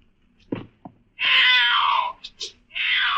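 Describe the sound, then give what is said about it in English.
A thin, black, powerful tom cat that has come down a chimney yowls loudly: a long, wavering, drawn-out cry, a couple of short squalls, then another sustained yowl, preceded by two soft thumps and no talking. “Then one morning, down my chimney, came a thin, black, powerful tom cat, who seemed to think me the trespasser.”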